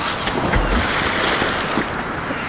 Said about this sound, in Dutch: Ach, het is verschrikkelijk. Wat gaat zo'n grote boot En ik sloep eh, zwaaien aan, aan hun, hun, hun takelinstallaties eh, in het rond in deze enorme bulderen storm